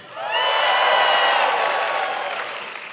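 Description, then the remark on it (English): The Emmanuel church audience erupts in loud cheering and shouting for Jesus, with applause and whoops swelling quickly and holding steady before easing off slightly. “Uh, yes, you better shout louder for Jesus than you do the Vikings today.”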